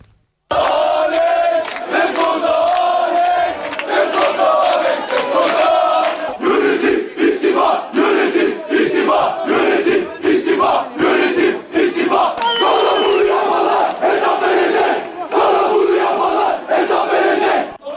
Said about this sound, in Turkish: taraftarlar dün gece yıldız oyuncunun evinin önünde toplandı ve saatlerce Alex lehine tezahürat yaptı